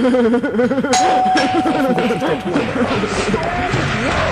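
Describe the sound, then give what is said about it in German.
A doorbell, pressed at a doorstep, chimes with a steady, ringing tone that sustains for over a second, followed by a fainter second chime, while people keep talking over it. “so, dann legen wir das Kind jetzt mal hier auf die Türschwelle und dann drücken wir die Türklingel und rennen ganz schnell weg.”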